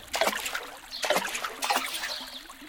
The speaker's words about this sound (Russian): и лягушата один за другим нырнули в воду.